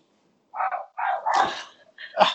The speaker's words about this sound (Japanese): あ、犬が。すごい犬。犬が犬が鳴じゃあ犬の鳴き声で締めということで。